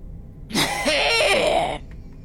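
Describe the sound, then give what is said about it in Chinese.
A single drawn-out, raspy cough lasting a little over a second, loud and harsh with a voiced, throaty edge. It stands alone with no talking around it, as if someone is deliberately performing it. “一声咳嗽把两个人吓得都不敢动弹了。”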